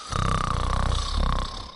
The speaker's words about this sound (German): Der schnarchelt so laut.